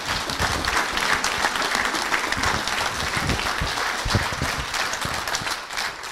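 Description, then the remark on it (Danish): A crowd applauds steadily at an event at Audi in Gladsaxe, dense overlapping claps forming a continuous, fairly loud wash of sound that holds evenly for several seconds without pause. “Det kræver et bifald.”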